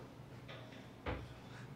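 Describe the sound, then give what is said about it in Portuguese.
A door opens with a soft scraping rustle followed by a single dull knock as it moves, fairly quiet, with no voices present. “Se for água, pode fechar a porta de novo.”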